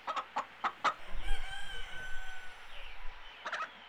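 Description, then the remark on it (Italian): A rooster crows in a long, drawn-out call, bracketed by quick, sharp clucks from chickens before and after. Fairly loud, with no talking. “lui nel pollaio ci metteva anche un galletto insieme al gallo per assicurare il ricambio.”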